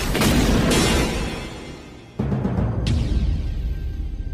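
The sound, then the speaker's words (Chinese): An elevator plunging from the fifth floor and crashing down its shaft after its safety cable failed and snapped at the connection: a loud, heavy roaring rumble that sags briefly, then a sudden violent crash, a second sharp bang, and continued grinding rumble afterward. “而就在这个时候，电梯里传出了一阵剧烈的声响。电梯在下降至五楼的时候，安全绳索出了故障，连接处发生了断裂，电梯从五楼坠了下去。”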